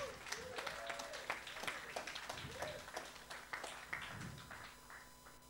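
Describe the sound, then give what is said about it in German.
An audience applauds steadily for several seconds, a dense patter of many hands clapping at an even level that eases off slightly at the end. “Großen Applaus.”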